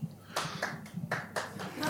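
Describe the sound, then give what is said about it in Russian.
A short burst of scattered audience applause, a handful of uneven, fairly soft claps that never swell into a full ovation, over a low murmur. “Не надо аплодировать, тут вопрос, знаете ли вы.”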